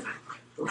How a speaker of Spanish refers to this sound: Perdón, ese es el sonido de alguno de mis perritos aquí así de fondo.